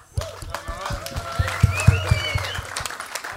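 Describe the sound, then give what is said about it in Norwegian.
A burst of applause from a group welcoming someone about to explain how beef Wellington is made, many hands clapping in a dense, steady patter with some sharper individual claps, lasting a few seconds amid faint background voices. “Applaus til kardinalet.”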